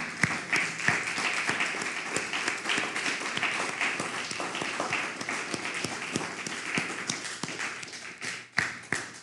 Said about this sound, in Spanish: Vamos a dar un fuerte aplauso a, todas las naciones, a la Quejilá Virtual Mundial.